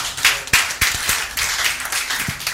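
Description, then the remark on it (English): A crowd of people clapping together in praise to the Lord, a steady burst of applause, loud and dense with sharp overlapping hand claps and no speech. “Somebody give the Lord a mighty clap of praise.”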